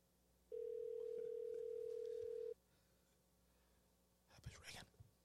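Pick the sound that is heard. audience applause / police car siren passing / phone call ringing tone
phone call ringing tone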